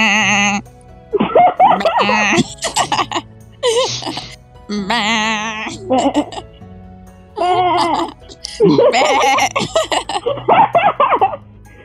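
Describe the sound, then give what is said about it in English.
A toy cow plays its mooing sound over and over: about seven loud, warbling, bleat-like calls with short pauses between them, each wavering in pitch. “Do the cows still make that noise?”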